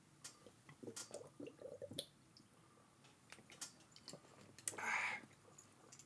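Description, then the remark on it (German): Quiet wet mouth sounds as someone sips a shot of St. Ginger, a 15% ginger liqueur: scattered small clicks and smacks, then a brief airy slurp near the end, with no talking. “Ginger trinken”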